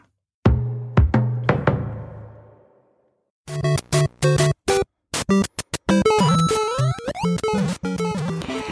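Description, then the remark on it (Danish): Retro Super Mario video game music from Nintendo with bright chiptune-style tones: a few ringing, decaying chords, a pause, then choppy blips and a quick run of electronic notes. Loud, no talking. “Ja, så er der godt nyt til alle nostalgiske nørder, der både elsker Lego, Nintendo og ja, Super Mario, som du hører her.”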